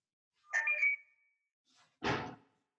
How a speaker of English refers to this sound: What phone was that? Your your third phone, your fourth phone? It's one of them.